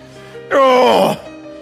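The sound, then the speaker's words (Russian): An adult voice mimics a child's annoyed, growling groan made in response to a parent's request: one loud, strained vocal burst lasting about half a second, with a falling pitch, in between quieter speech. “Вот это вот в ответ, хотя они рычат, потому что мы их достаем.”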